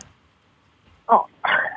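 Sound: toad croaking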